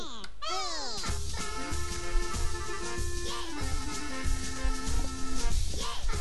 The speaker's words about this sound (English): I've got LocoRoco track. Why have I got this? Does anyone want to hear LocoRoco track? Yeah, listen to a little bit of this.